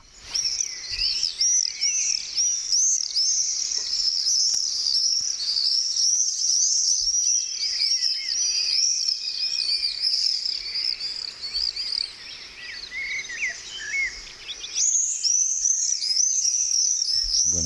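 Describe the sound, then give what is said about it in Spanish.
Shrill, high-pitched screeching calls of a small bird, typical of summer in towns and cities across Spain, pour out almost nonstop, many loud overlapping squeals, easing briefly before a fresh burst near the end. No one speaks. “agudos, silbidos suaves. Eh, típico del verano. Esto en toda España se oye esto en verano en los pueblos, en las ciudades de este pajarillo”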